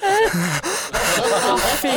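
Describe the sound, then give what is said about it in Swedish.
A voice imitates the panicked, gasping breathing of a middle-aged woman starting a panic attack, a quick series of sharp, strained inhalations with voiced catches, loud, running continuously for about two seconds. “Och hon tittar på mig och jag, jag ser hur hennes andning börjar liksom”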